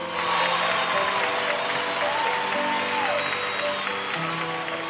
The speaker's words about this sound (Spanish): Una dura batalla contra el cáncer terminó por cerrarle los ojos. Héctor Bonilla. Aplausos de pie para despedirlo.